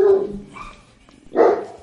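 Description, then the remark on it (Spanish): Two loud dog barks, from dogs kept at the site of a live program, separated by a short pause, the first a drawn-out bark and the second sharper, with faint background noise between them and no one speaking. “perdón, estamos en un este en un móvil donde tenemos perros, es un programa en vivo desde Puerto”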